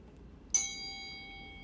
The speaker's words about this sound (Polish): To chyba czas na dzwoneczek.